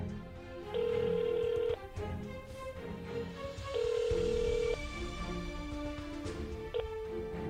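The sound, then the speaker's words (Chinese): A mobile phone call rings out on the line: two steady, mid-pitched ringback tones, each about a second long, separated by a two-second pause, over a faint hum of background noise. “我打手机给他看看好了。”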